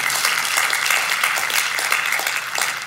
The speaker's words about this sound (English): Can we give her a round of applause and our worship team?